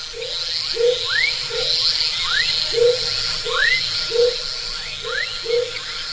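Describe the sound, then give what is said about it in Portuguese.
A dense chorus of frogs calling in a forest: low, regular croaks repeat about twice a second, with rising chirps interleaved, over a steady high-pitched hum of many more calls. No voices. “Você vira para o lado, para onde está o fragmento da floresta que a gente vai entrar, e aí é um som quase indistinguível de sapo. Tem muito, muito, muito sapo.”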